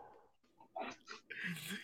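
A sneeze: a couple of quick breathy catches building up, then one loud, hissy burst that holds for a moment before fading.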